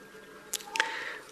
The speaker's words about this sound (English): That's my alarm in my bag.